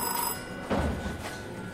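A telephone rings at a boarding school in Boulogne-sur-Mer on a spring morning in 1951, a bright bell-like tone with a sharper burst partway through, set against a soft background hiss. No one speaks.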